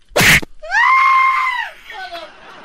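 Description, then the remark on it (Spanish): A person shouts loudly: a sharp noisy burst, then a long, high, strained yell lasting about a second, trailing off into a weaker cry. “No me estés gritando enfrente de la gente.”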